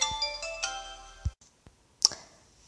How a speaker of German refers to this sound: Denn ich habe halt gerade so komische Geräusche gehört. Und es war halt einfach das Telefon von draußen. Ja, es hat sich halt so leise angehört